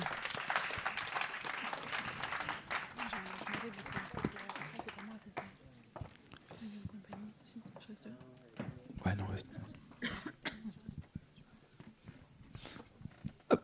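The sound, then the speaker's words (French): An audience bursts into dense, steady applause for the participants of a panel for several seconds, then the clapping thins out and fades while people begin talking over the last scattered claps. “On peut les applaudir.”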